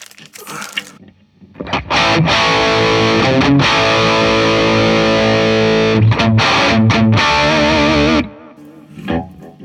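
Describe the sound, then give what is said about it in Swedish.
A loud, distorted electric guitar riff played through an effects pedal with bass, mid, treble and presence EQ controls, thick and saturated with chorus-like shimmer, running for several seconds before cutting off into near silence. “spelar jag samma riff här.”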